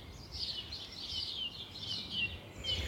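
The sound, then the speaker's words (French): Several birds sing and chirp continuously in a dense, overlapping, high-pitched chorus in Paris, free of human noise, over a soft low rumble of background noise. “On retrouve le silence des hommes et le chant des oiseaux complet.”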